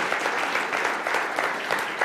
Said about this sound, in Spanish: Dale el aplauso a Dios, Él se lo merece.